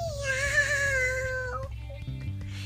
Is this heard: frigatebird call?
no